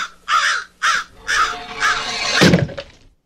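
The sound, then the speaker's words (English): A crow caws harshly five or six times in quick succession, each call loud, ending with a brief scraping flutter before the sound cuts off. “give me my crows. We're just getting all the crows at once.”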